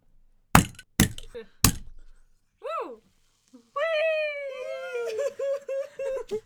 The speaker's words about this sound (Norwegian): Vi har dessverre ikke noe champagne å poppe, men vi har den japanske brusen Ramune, som vi skal poppe til ære for denne episoden og til dere fine lyttere.